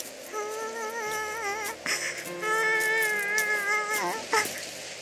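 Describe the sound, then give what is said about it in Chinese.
A baby mermaid's wavering cry, a few long quivering wails with warbling pitch rising and falling, fairly loud and steady, with no talking over it. “小人鱼发出了哭声。”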